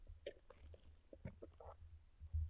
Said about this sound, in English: My throat got really dry, guys. I had to take a sip of my drink.